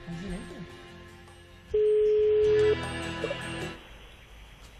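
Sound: phone line tones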